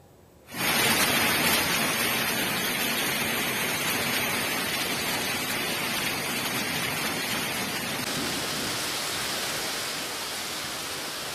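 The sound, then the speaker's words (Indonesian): A heavy rainstorm with strong wind and hail in Bandung, West Java, on a Thursday afternoon, ice pellets falling on houses and yards; a dense, steady roar with a wind-driven hiss, starting abruptly and continuing loud and unbroken throughout, easing slightly near the end. No voices. “Seperti inilah hujan badai pemirsa disertai angin kencang yang melanda kota Bandung, Jawa Barat pada Kamis siang.”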